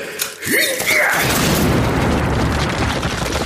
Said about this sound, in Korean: 폭발음이 들렸는데도 별다른 충격이 없어 아래를 보니 서령이 쓰러져 있었다. 대신 수류탄을 막은 것 같았다.